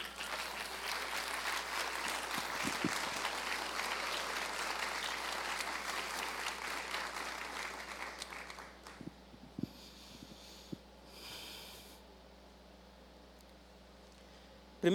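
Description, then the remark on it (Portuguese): An audience applauds God during a sermon in a dense, steady roar of clapping for about eight seconds, then it fades to a few scattered claps and near quiet. “Você pode aplaudi-lo?”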